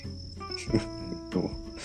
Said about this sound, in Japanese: 本日8月末ということであのスズムシのサウンドを入れてお送りしておりますそうやなリアルなサウンドをなという感じに